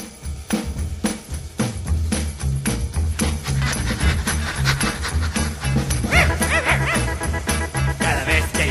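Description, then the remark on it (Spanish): A dog barks several times in quick succession, then breaks into high, wavering whimpers, all over steady background music with a thumping bass line. “Eh, quítate ya de aquí, perro lanudo, déjame estar solo con mi novia.”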